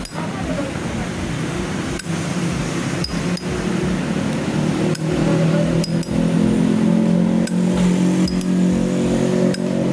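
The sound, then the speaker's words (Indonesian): A motorcycle engine drones steadily, its low humming tones swelling louder toward the end, with a few sharp ticks and clicks scattered through it and faint voices mixed in. “motor oh motor iya”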